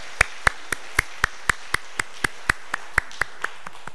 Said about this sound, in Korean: 우리 시온 찬양대 찬양 잘 감당하신 것 올려드린 것 감사하고 우리 하나님께 영광의 박수를 한번 같이 한번 드리도록 하겠습니다.